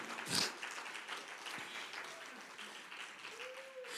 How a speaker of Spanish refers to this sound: Dale un fuerte aplauso a Cristo, hermano.